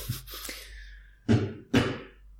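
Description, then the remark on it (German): Two short fart sounds about half a second apart, each a low, blunt burst that fades quickly, preceded by quieter rumbling noises; no one speaks. “Ich hab gefurzt.”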